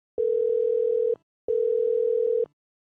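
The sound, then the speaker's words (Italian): A telephone line tone as a call is placed: two long, steady electronic beeps, each about a second, separated by a short pause, clear with no voices. “Bene, allora aspetta adesso che la chiamiamo.”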